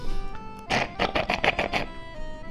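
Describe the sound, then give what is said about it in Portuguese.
A mate gourd gurgles as the last sip is drawn through the straw: a short burst of about seven rapid, bubbly slurping pulses, fairly loud, over a faint steady tonal hum. “Roncou o nosso mate.”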